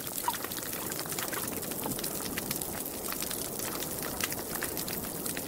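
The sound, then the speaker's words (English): Underwater recording of a healthy, lively coral reef off the coast of Fiji: a dense crackle of countless tiny snaps and pops, steady and continuous like frying or fizzing, with no voices. “One of the coral reefs is a healthy, lively coral reef, and the other one is dying, and you can tell the difference almost immediately.”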